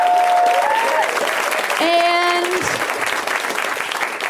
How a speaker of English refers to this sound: Well, we have a great show, and all the comics are in back. They can hear you. Let's welcome them so much. Please, please, please. Just a little more clapping.